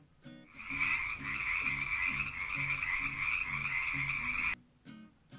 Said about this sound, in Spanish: Muy pero muy cerca de un lugar que queda lejísimos hay una laguna. En esa laguna vive una familia de sapos, una familia numerosa.